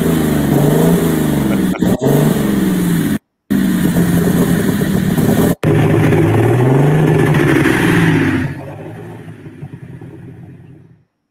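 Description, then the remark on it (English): A loud pulling tractor engine revs hard under heavy load, its throaty pitch rising and falling in surges, then drops off and fades toward the end, straining. “That tractor's so sharp.”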